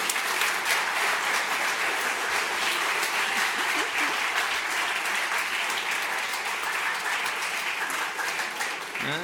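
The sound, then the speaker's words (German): Sustained audience applause at a stage event, the audience applauding themselves after a day of concentrated work: a dense, steady wash of many hands clapping at even loudness throughout, with no voices standing out above it. “Einen ganz großen Applaus bitte für euch alle.”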